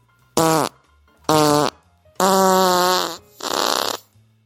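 A man farts four times in a row while straining to push a book back onto a library shelf, two short loud blasts followed by two longer, drawn-out ones with a buzzing, slightly falling tone, with brief quiet gaps between them.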